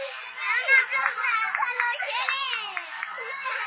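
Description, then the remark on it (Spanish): A group applauds the hosts for organizing everything in a dense, steady clatter of clapping, mixed with excited children's voices shouting and calling out over it the whole time. “Un aplauso, dos aplausos a por organizar todo.”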